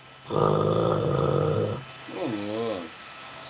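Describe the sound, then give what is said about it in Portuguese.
A person imitates snoring with one long, loud, rasping snore-like breath, followed by a shorter wavering vocal sound. “Você, imagina você tá lá assistindo televisão, vem aquele comercial daquela, daquela cerveja, você vai lá, ronca, dorme, dá aquelas roncadinhas assim.”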